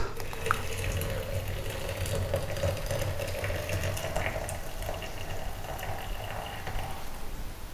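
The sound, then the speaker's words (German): Water pours steadily from an electric kettle into a pot for tea until the kettle is empty, a continuous splashing stream with a faint mechanical rattle underneath, running for several seconds without any talking. “Gut, die Kanne ist, äh, vielmehr der Wasserkocher ist leer.”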